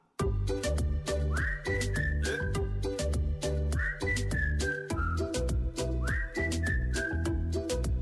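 Someone whistles a short descending melody, repeated three times over a steady drum beat and bass-heavy backing music. The whistle is clear and prominent, with no voices.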